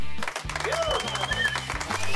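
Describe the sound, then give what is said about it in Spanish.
At the end of a match at the Tepa Gómez stadium in Jalisco, a large crowd applauds and cheers its women's team players in a dense, steady wash of clapping and voices, with whistles and shouts rising above it, loud throughout the short stretch. “Al final el público aplaudió y aclamó a sus jugadoras que dieron un gran espectáculo.”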